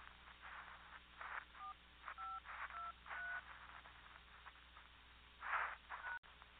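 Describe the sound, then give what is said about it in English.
Four or five short touch-tone keypad beeps, evenly spaced, entering a passcode into a voicemail system over a narrow, hissy telephone line, with muffled bursts of line noise around them. “Please enter your passcode, then press pound.”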